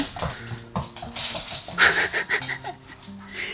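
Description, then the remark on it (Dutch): A small Shih Tzu dog named Flecky whines and gives short, eager yips, a restless run of high-pitched bursts over about three seconds, wanting to play. “Je hond zit naast je. Ja, hij wil eigenlijk gewoon spelen nu.”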